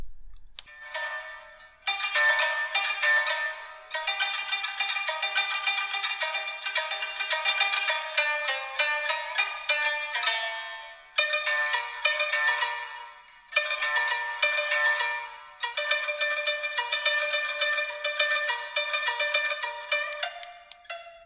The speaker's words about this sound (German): Also so klingt ein Shamisen.